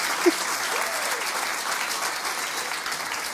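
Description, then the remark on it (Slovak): A church audience claps steadily for the speakers about to deliver a sermon, a dense continuous patter of applause with no pauses, moderately loud, one brief sharper knock near the start. “Tešíme sa, zatlieskajte im.”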